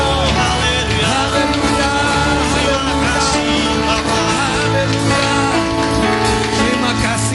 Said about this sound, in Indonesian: Berikan tepuk tangan Berikan sorak-sorai bagi Tuhan